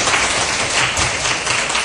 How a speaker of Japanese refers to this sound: じゃあこれから、えー、私が紹介させていただきますが今日のラジオ日経の番組を進めてくださる山本アナウンサーそして歌手の長澤さんです拍手しましょう